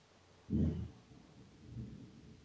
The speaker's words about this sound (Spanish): Estos rayos están durísimos y los carros están... Eh, hay mucho ruido.